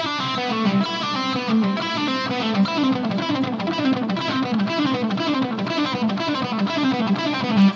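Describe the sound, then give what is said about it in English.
A distorted electric guitar, played through a Kemper preset with delay and reverb, plays fast, flowing runs of notes, likely pull-offs, blurred into a continuous, steady stream at moderate loudness with no voices. “I've just got, a, again, one of the presets I always use on my Kemper and some delay and reverb on there.”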